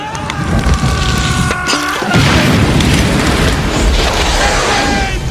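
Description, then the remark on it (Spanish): A fiery explosion erupts, a loud whooshing burst of flames followed by a sustained roaring crackle of fire, dense, with no voices. “Y aunque el plan empieza completamente bien, alguien no entendió el plan y lo enciende en fuego.”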